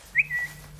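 A mobile phone's text message alert, an SMS welcoming the owner to the Czech Republic while walking in a forest: a short, bright electronic chirp that rises and then holds a thin steady tone, quiet over a low background hum.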